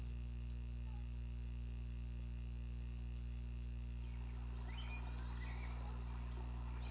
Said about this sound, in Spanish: Mira, pa, qué bonitos pajaritos. De seguro tienen su nido demasiado cerca.